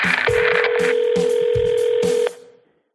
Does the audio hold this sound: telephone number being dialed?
yes